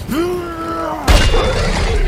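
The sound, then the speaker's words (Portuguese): A drawn-out tonal cry gives way to a sudden, loud smash as a swung hammer strikes a Hydra serpent's gum, shattering dozens of venomous teeth, followed by a second of harsh shattering and crunching debris, forceful with no talking. “Lacorin acertou a gengiva da serpente, estilhaçando dezenas de dentes venenosos.”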